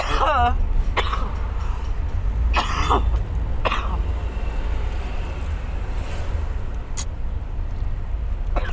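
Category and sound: human body sound, coughing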